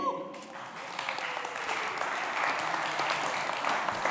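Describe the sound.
A crowd breaks into steady applause, a dense wash of many hands clapping that swells quickly and holds at an even level for several seconds, with a few voices mixed in.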